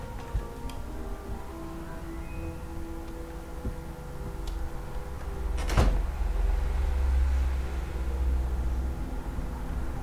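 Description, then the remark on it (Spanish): A door is opened with a single sharp clack partway through, followed by a low rumbling hum amid faint ticking noises; nobody speaks. “Abre la puerta.”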